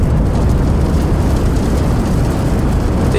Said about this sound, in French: C'est le matin, le soleil pointe à l'horizon et au lieu des oiseaux qui gazouillent, on entend le rugissement sourd de la boule de feu.